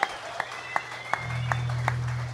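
Applause in a slow, steady rhythm: about six distinct claps spaced evenly apart, fairly close and moderately loud, with a low hum coming in partway through and no one talking.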